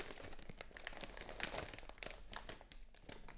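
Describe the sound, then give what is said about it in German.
A plastic chip bag crinkles and crackles steadily for a few seconds as it is picked up with a slow, calm movement and brought into the lap, a fairly soft rustle of irregular crisp snaps with no voices. “Und greif mit einer ganz aufmerksamen und ruhigen Bewegung deine Chipstüte. Hol die Chipstüte zu dir in deinen Schoß”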